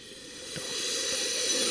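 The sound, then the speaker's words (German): A long, deep sniff of wine drawn into a wine glass, a steady airy rush of breath that builds slightly in loudness over a second and a half, with no talking. “Wenn das Glas zerspringt,”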